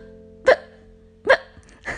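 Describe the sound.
A voice imitates hiccups: three short, sharp vocal hics spaced about a second apart, each a quick bright burst, with no speech around them.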